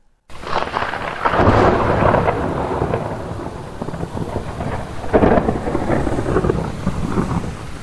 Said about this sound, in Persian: با صدای رعد و برق نور بر چهره افرا باز می شود